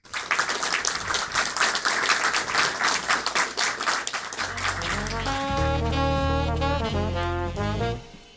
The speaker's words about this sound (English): Uh, please, everyone, give him a round of applause.